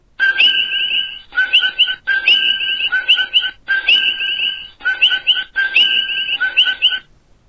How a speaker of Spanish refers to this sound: Me encanta escuchar al coqui cantar.